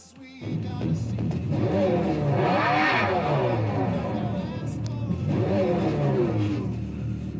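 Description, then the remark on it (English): A Dodge Charger Daytona SRT electric muscle car revs loudly, its engine note climbing and falling in two strong sweeps over a steady idle rumble. “Sounds cool. That looks cool too. Dodge Charger Daytona SRT electric muscle car.”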